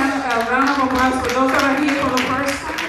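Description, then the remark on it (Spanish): Sustained audience applause at an Iglesia en Movimiento church gathering for first-time visitors, a dense wash of many hands clapping at a steady loud level for the whole stretch, with some voices cheering or calling out underneath. “Y ah, otra vez un fuerte aplauso por los que nos acompañan por primera vez.”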